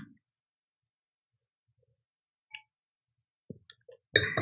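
Quiet stretches are broken by a few sparse crinkling clicks. At the end comes a short, louder burst of plastic packaging rustling as a five-pack of Kodak Gold 200 medium-format film is opened. No one speaks.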